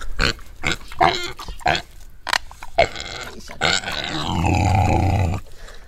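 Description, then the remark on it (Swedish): A pig grunts repeatedly as it comes over, short snuffling grunts in an uneven rhythm, ending in a longer, deeper drawn-out grunt before a brief quiet. “Det här grisen kommer.”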